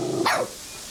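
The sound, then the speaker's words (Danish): A single sharp, high-pitched bark from a small Coton de Tulear dog, loud, followed by quiet background hiss with no further barking. “Er det, er det, er det os, der stresser hundene?”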